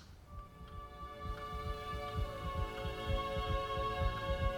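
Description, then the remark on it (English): The heartbeat of someone with two hearts thumps steadily, each beat coming in a doubled pulse, low over a sustained droning hum. No one speaks. “You see, that's no echo.”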